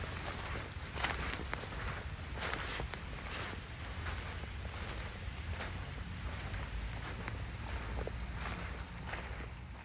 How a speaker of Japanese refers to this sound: まあ、歩いてますね。これね、あの、さっきの腐葉土なところなんですけど、はいはい、腐葉土を越えていかないと展い、いかないと見れない展示もあって。